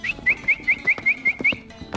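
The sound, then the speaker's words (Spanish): A person on a farm whistles a call for a horse: a quick run of about seven short, bright, upward-flicking whistles in an even rhythm, clear, with no talking. “porque la gente siempre está cantando o está silbando o está haciendo cualquier tipo de sonoridad porque es la forma de comunicarse con los animales.”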